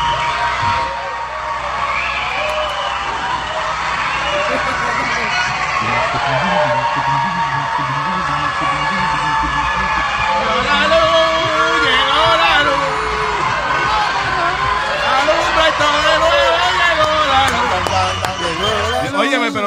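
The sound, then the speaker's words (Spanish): A loud, continuous crowd of schoolchildren and teachers cheering and shouting as they run out of classrooms when the electricity comes back after 112 days, excited voices overlapping for the whole stretch, with scattered thumps like running feet beneath the din. “los estudiantes salieran de los salones corriendo. Las maestras también, locas.”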